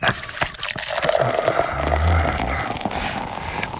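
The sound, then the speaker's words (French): A drink being poured into a glass during a drinks service, served already chilled with no ice: a steady, bubbly splashing stream that runs for several seconds, with a faint low rumble underneath and no voices. “Service boisson.”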